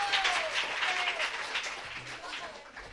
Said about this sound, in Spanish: que es profesor de educación física, si no me equivoco, y aunque hay confianza, yo creo que se merece un fortísimo aplauso el profesor,